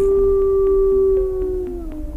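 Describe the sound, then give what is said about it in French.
A huge wolf howls once in a long, steady, fairly loud note that slides lower near the end, with no talking and only a low rumble underneath. “mais un hurlement résonna et un énorme loup s'interposa entre les”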